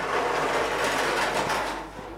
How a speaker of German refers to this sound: Ein Bobbycar-Geräusch, da kommt ein Kind.